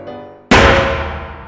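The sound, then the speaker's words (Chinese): A cooking pot, accidentally dropped, crashes to the floor with one sudden, loud clang, then a metallic ring that fades slowly over the next second. A faint tone hums just before the impact. “我一时疏忽，不小心让锅子掉到地上，发出巨大的声响。”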